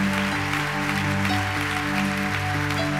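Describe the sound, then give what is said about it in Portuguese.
A church audience applauds for Jesus in a steady, dense wash of clapping that lasts throughout, with sustained low musical tones humming underneath and no voices. “Se é para Jesus, faz melhor, hein? Se é para mim, não precisa nem aplaudir.”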